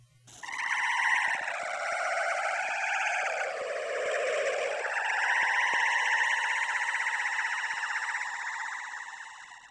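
A heavily processed recording of the singer's own voice, used as sound design near the end of a song, makes a sustained, organic, animal-like wail, its pitch sliding slowly down and back up like a siren. It is loud and continuous, with no talking.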